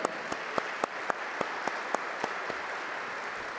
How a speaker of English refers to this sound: So let's give them a big round of applause, please.